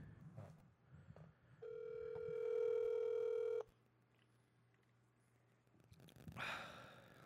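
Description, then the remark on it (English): A phone line gives off a loud, steady electronic ringing tone that holds for about two seconds and then cuts off, with faint background rustle and a short breathy sound afterward. “If we can get him on the phone.”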